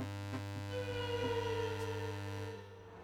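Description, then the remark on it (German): A steady, monotonous electric hum with a faint whining overtone drones on continuously through the night, easing off slightly near the end. No voices. “Er hört das Sirren, das die Nacht erfüllt. Jede Nacht ist es das monotone, das heulende Sirren, das ihn begrüßt.”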